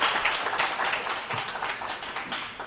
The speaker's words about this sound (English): Yeah, and really, you know, uh, a short word and a short applause doesn't doesn't do justice to the kind of sacrifices that you guys have made. So thank you so much for that.